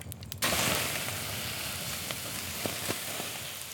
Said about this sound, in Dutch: Zo snel als Jan kon, rende hij naar een grote regenton voor zijn winkel en begon daar grote emmers water uit te scheppen, die hij samen met de koetsier over de houten vaten gooide.